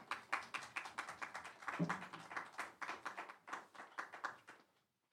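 audience clapping in welcome

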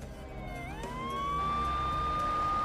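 police car siren

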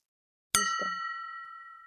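glasses clinking

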